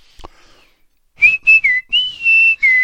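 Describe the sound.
A person whistles a short tune of five or six bright, clear notes, some sliding up or down in pitch, loud and unaccompanied, after a brief soft click and a moment of quiet, imitating how a friend crept up behind someone after a game and whistled as a greeting.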